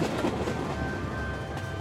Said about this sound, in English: As they approached their destination, Reynolds told Mills to slow down. Eventually, he told him to bring the train to a full stop near a small crossing over a country road.